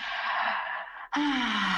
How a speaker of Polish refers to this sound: Przeciągnąć i głośno ziewnąć